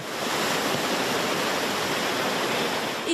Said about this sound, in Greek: Άνθρωποι κινδύνευσαν από τα ορμητικά νερά των χυμάρων